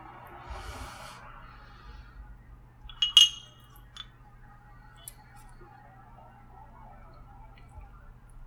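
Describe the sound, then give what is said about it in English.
Two whiskey glasses clink together once in a bright toast. The ring fades quickly, followed by a couple of lighter taps over a low steady hum, with a soft rustle just before. “Now, cheers, Tom. Here's to a Cheers, good Henry. first episode.”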